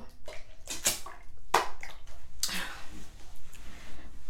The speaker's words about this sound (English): Chill out. Drink some water.